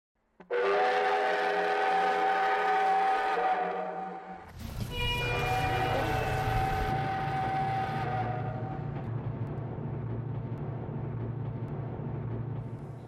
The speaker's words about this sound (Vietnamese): Xin xịt, xin xịt, bí bo, con tàu di chuyển với tốc độ tối đa 30 km h như một bác rù khoanh thai thông thả. Phải mất tới hơn 30 phút, con tàu mới đi hết đoạn đường chỉ dài 10 km từ ga Quốc Son đến ga cuối cùng Khà Chong.